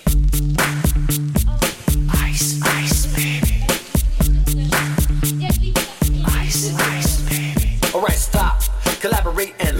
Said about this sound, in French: … de …, qui a été euh, une chanson condamnée pour plagiat